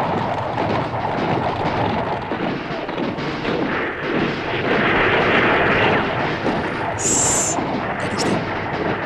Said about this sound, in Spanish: Hace rato que lo vengo escuchando. Son disparos. Algo está ocurriendo ya.